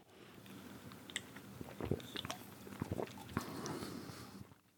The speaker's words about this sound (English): I want you to take a big long pull. I want to hear a glug glug glug as you as you swallow it down. All right. All right. So ready. This is me taking a big long pull.